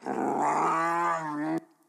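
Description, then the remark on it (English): A deep, rumbling grizzly bear growl sounds loud, one sustained snarl lasting about a second and a half before cutting off abruptly into near silence. “A grizzly charged at me uh, low down, growling terribly, and she caught me and basically tore my face off.”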